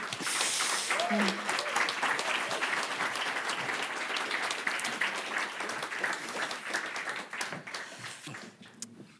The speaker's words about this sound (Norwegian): Gi dem en stor applaus.